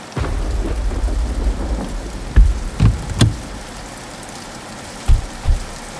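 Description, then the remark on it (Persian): Steady rain hisses throughout, with several deep rumbling thuds rolling in now and then, like thunder. No voices, just the continuous wash of falling rain. “باران”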